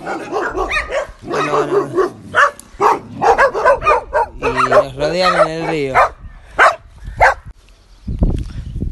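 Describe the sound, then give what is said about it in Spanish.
Four arriving dogs bark and yelp in loud, overlapping bursts, some barks drawn out into whiny howls, while a person speaks briefly over the commotion. “Cuatro perros que llegan.”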